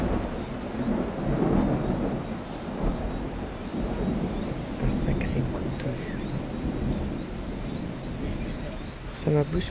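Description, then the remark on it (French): Steady, heavy rain pours down continuously, a dense wash of hiss layered over a deep, rumbling low end, with a couple of brief sharper splashes near the end. “Le chant d'une grenouille et la pluie qui tombe.”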